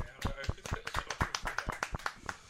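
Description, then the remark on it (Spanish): Applause: a run of sharp, uneven handclaps that overlap into a steady patter for a couple of seconds, moderately loud, with no clear speech on top. “Venga, vamos a darle un aplauso.”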